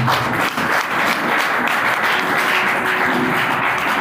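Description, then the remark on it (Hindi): An audience clapping together in steady, dense applause for the young people, holding at an even loudness for the whole stretch, with a faint murmur of voices beneath the clapping. “yes क्या बात ताली बजाओ हमारे जवानों के लिए”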